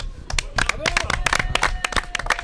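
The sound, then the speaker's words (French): An audience breaks into applause for the people who will take over the radio game show, a steady stretch of many hands clapping at once, loud, with a few voices calling out underneath. “On va leur, on va les applaudir. fort. On les applaudit.”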